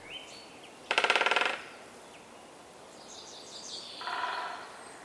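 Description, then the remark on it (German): A great spotted woodpecker drums its beak on a dead branch, a rapid, short roll of about a dozen sharp taps lasting half a second, followed by faint bird calls in the background of an outdoor setting. “benutzt äh, der Buntspecht einen abgestorbenen Ast oder ein, ein Stammstück, das eine gute Akustik hat und schlägt dort mit dem Schnabel in schneller Folge drauf und äh, trommelt dadurch einen sehr schnellen, aber relativ kurzen Trommelwirbel.”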